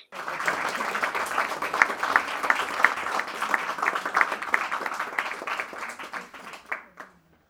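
Steady applause, a dense patter of quick claps that holds at an even level for about seven seconds, then thins and stops abruptly.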